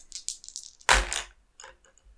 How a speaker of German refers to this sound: Ähm, würfel mal äh, auf Kraft.